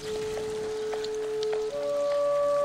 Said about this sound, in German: Im Sommer toll, wenn das Wasser sprudelt, noch besser. Das gehört doch zu unserer Stadt, die Brunnen.